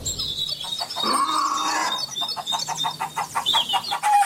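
Hens cluck and murmur in a henhouse in a steady, busy chatter, with a longer drawn-out call partway through and scattered higher chirps over a continuous background. No one speaks.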